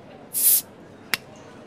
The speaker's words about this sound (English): Otherwise, sit back, relax, pop a bottle,